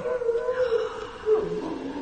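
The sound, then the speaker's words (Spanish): Dogs howl in long, wavering tones that rise and sag, one drawn-out cry fading into another, moderately loud against a faint, steady background hiss. “Eh, los perros agullan tantísimo.”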